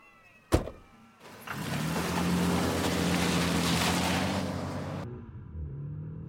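A sharp thud, then a car engine fires up and roars loudly for several seconds as the vehicle pulls away, before the noise abruptly drops to a low background hum.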